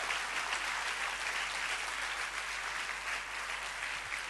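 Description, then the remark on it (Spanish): An audience applauds the Lord, a dense, continuous wash of clapping hands that holds an even loudness throughout without pauses or speech. “Y le dan fuerte el aplauso al Señor.”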